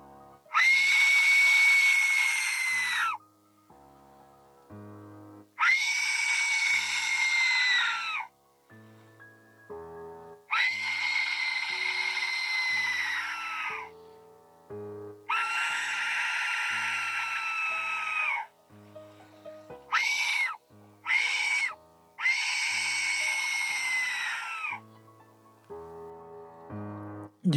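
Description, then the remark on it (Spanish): A series of piercing, harsh shrieks like a human scream from a death whistle, a whistle said in legends to have been used by the Aztecs, repeated in about six loud blasts of a few seconds each, some short and choppy, separated by brief pauses. “y eso que acaban de escuchar se llama El Silbato de la Muerte.”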